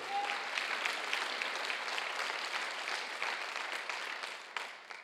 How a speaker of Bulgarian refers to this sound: О, да, може да ръкопляскаш за това.